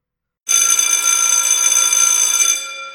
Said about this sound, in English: Whap! A massively loud bell rang. The gate slammed open, and I started running.